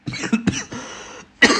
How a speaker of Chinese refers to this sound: 不好意思咳嗽